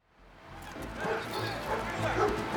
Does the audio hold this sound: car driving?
no